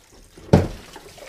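Water at a sink during dishwashing: a sudden splash lands after a quiet moment, then settles into a softer, steady trickle with faint clinks. No one speaks.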